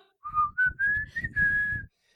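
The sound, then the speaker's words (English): A short whistled melody, the intro of a rock song, of four or five sustained notes stepping upward in pitch, fairly loud, with no talking, ending in a brief breathy trail. “just based on the title, I feel like it starts it. off with whistling.”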